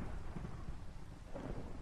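Low, continuous thunder rumbles beneath a steady wash of rain, the deep roll swelling slightly near the end with no voices present.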